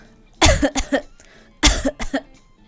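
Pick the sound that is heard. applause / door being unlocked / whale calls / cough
cough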